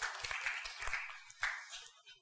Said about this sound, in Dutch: Uh, applaus voor de verhuller.